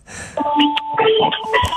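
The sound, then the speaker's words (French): A school bell rings out as a steady electronic tone, sustained and fairly loud for over a second, with people talking over it. “Est-ce que c'est la cloche?”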